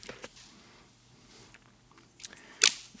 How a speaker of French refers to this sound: oh, Putain son micro vient de chuter. Oh putain, son micro vient de tomber, c'est terrible. C'est une catastrophe. Je n'ai même pas coupé il le micro.